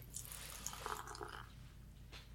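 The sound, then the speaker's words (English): Pumpkin Black beer from Roha Brewing Project, five percent alcohol, glugs and fizzes as it is poured into a glass, a soft bubbling stream for about a second and a half before trailing off, with a brief faint splash near the end. “We're gonna do the pour.”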